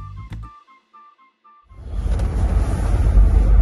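A few soft tonal notes fade out, then a steady, loud low rumble of road and engine noise inside a moving car fills the rest, with no one talking.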